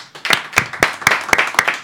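A short burst of applause: loud, sharp hand claps in a steady, even rhythm, roughly four per second, over a faint wash of softer clapping, with no talking.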